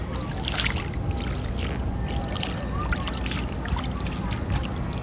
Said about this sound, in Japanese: 今ほんと海のそばにいるのよこんな感じでね